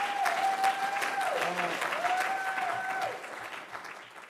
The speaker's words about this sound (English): I, I, don't know why that person is screaming so loud, but I, I hope it's um, because they agree with this statement that I'm about to say.